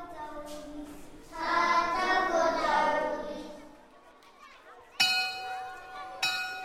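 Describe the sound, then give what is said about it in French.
Children's voices chatter, then a school bell rings out twice with bright, sustained metallic tones, each strike sharp and clear as the chatter dies down, at a school in the Sindhupalchok district of Nepal. “La cloche sonne.”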